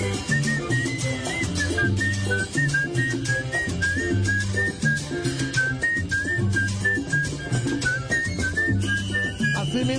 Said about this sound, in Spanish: mira, como está esto silbando